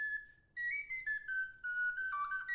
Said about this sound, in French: C'est un petit air qu'il joue souvent lorsqu'il présente le flageolet sur les expositions ou ailleurs